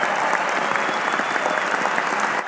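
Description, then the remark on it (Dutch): A burst of steady applause from a group, dense overlapping claps sustained evenly for a couple of seconds at a fairly loud level, with no talking. “Applaus!”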